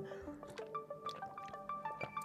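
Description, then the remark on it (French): Quiet sips of water from a small cup, with soft wet slurps and little liquid clicks and drips repeating unevenly over a couple of seconds, no talking. “Voilà, j'ai toujours prévu la petite tasse d'eau au cas où.”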